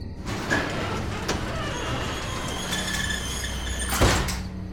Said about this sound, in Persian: در انبار رو باز کردم تا یه نگاهی به اطراف بندازم